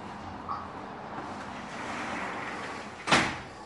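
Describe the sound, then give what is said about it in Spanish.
A door is pushed shut after a few seconds of soft rushing, scraping movement, ending in one sharp, fairly loud slam that rings off briefly. No one speaks. “voy a cerrar la puerta.”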